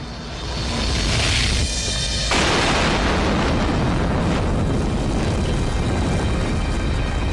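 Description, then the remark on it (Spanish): A kerosene-fuelled rocket engine on test erupts into a violent, explosive roar from combustion instability caused by a slight change in the fuel mixture, swelling within a second and thundering loudly and continuously, a dense rumbling blast with no voices. “una inestabilidad de la combustión.”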